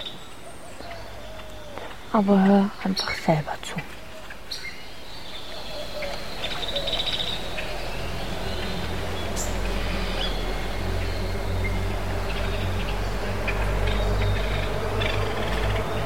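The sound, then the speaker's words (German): A short spoken line, then a dense chorus of many birds calling and singing together at dawn, at a quarter to six in the morning at an almost deserted hotel in St. Elena, steady and continuous over a low background hum. “Und da hört man viele Vögel.”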